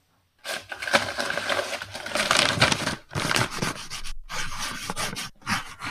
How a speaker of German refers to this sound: Oh, schreibst du aber laut.